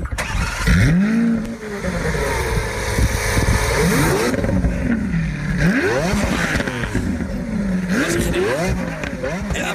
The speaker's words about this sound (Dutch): De supercar uit 2011, 9 jaar oud alweer. Best oud, hè? Je nou. zou verwachten dat die op een gegeven moment een keer wordt vernieuwd. Maar goed, eh, gemiddeld 1000 per jaar dus gemaakt. En een heerlijke V12-motor.